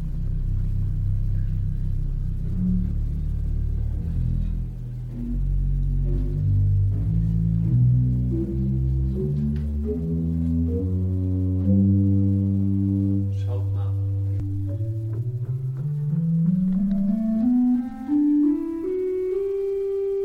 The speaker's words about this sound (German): Aber so diese Orgel, habe ich ja eben zu Beginn gesagt, hat 26 verschiedene Register, so nennt man die Klangfarben. Und ich spiele euch jetzt mal vom tiefsten Ton bis zum höchsten Ton den Umfang der Orgel vor. Hört mal ganz genau.